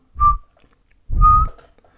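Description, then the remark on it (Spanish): Two soft, breathy whistles hold the same steady note at a particular intensity, each lasting about a third of a second, separated by a brief pause. The whistling is quiet, with no talking. “una de las compulsiones irracionales contra las que luché durante mi infancia era que a menudo sentía la necesidad de hacer un silbido suave en una nota e intensidad particulares, era algo común.”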